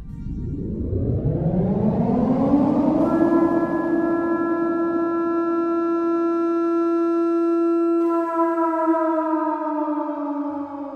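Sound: siren sound effect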